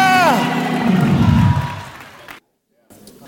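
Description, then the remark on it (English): An audience shouts hallelujah together in a loud, swelling roar of many voices, pitch sliding downward as the cry fades, then an abrupt cut to silence before faint murmuring returns. “Shout hallelujah!”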